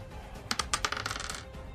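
A twenty-sided die clatters across a tabletop in a quick burst of sharp, bright clicks that tumble irregularly for about a second before settling. No one speaks.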